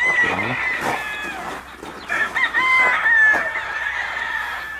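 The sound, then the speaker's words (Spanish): A rooster crows loudly, its drawn-out calls overlapping with the clucking and chatter of other chickens throughout. “El gallo.”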